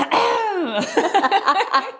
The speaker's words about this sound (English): Me too. As I clear my throat. as the throat chakra gets a little tighter.